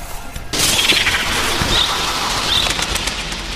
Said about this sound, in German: schoss auf einmal ein ganzer Schwarm Wildtauben aus dem Dickicht hinter der Haselnuss hervor.